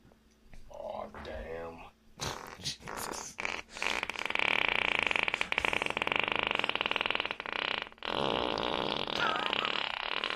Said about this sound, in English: He's farting on his dog.